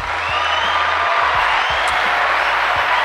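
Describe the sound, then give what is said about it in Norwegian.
A crowd applauding steadily for about three seconds, a dense, even wash of many hands clapping at once with a faint murmur of cheering underneath, loud and unbroken throughout. “Det fortjener en liten applaus.”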